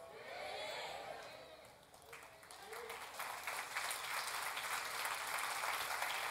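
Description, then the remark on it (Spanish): A church audience breaks into applause and praise to God that starts scattered and swells into steady, dense clapping, with a few raised voices calling out near the start. “Porque eso merecía un aplauso y un gloria a Dios.”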